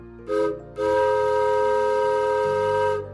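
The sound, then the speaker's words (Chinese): A small mountain train heading up to Alishan sounds its whistle twice: a short toot, then a long sustained multi-tone blast with steady harmonic pitches, over a low rumble of the train running, with no talking. “搭着前往阿里山上的小火车，前往邹族的部落，要去寻找山上的朋友们。”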